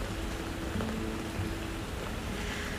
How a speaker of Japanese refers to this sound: またまた降ってきましたよでもこの雨の奏でてくれるポツポツダダダダポツポツジャージャーこの交響曲も大好きです